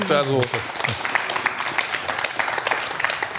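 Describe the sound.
An audience breaks into sustained applause, a dense, steady patter of many hands clapping at an even loudness, with a short burst of voice at the very start.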